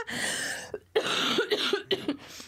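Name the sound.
cough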